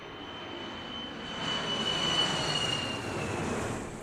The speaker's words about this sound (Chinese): 看到天空中自己喜欢的飞机飞过，明九兴奋起来，一时间有些忘乎所以